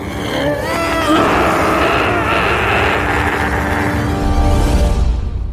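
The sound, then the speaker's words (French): A loud, sustained roar of a frightened dinosaur lasting several seconds, rough and rumbling with a growling, engine-like texture and wavering tones, holding steady before swelling slightly near the end. “Et à votre avis, que fait un dinosaure quand il a peur Oui, il hurle, mais il hurle très, très fort.”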